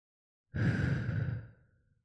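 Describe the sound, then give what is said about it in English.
A single deep breath let out as a long, audible sigh, fairly loud, fading away over about a second with no talking. “Could we take two deep breaths again, starting now?”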